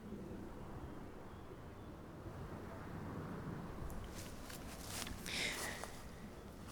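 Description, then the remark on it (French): A steady, low airplane rumble drones overhead above a field of dense, tall green grass, while bright insect buzzes and chirps flicker in during the second half. “Parfois un, un bruit d'avion, sans doute vide, à cause de la Covid-19, mais avion tout de même, au milieu des bruits d'insectes, et de bruits lointains.”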